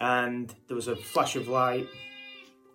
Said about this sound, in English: That's the cat.